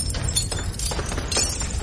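The glass of a lighthouse tower shatters and rains down in pieces in a loud, continuous crash, with several sharp bursts of breaking cutting through the clattering debris over about two seconds. No voices are heard.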